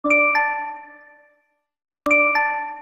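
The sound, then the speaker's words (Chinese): A phone's LINE app message notification chime plays twice: a bright two-step ding with ringing harmonic tones that fade for about a second, then a pause before the same chime sounds again. No one speaks. “那一天我一样从莫名的惧怕中睡着，突然听到手机传来赖的声音，”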